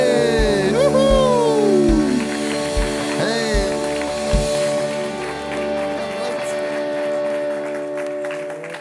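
An audience applauds steadily, a dense crackle of clapping running under loud stage music with sweeping tones and heavy booming beats at the start.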